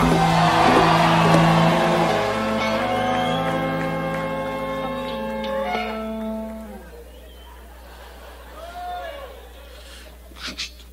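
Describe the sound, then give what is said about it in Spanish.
A church audience raises a victory shout at a preacher's call, a loud, sustained roar of shouting and whooping. The cry gradually fades after several seconds, leaving scattered voices and a few sharp cries near the end. “Si tú tienes el poder de Dios, levanta un grito a la victoria.”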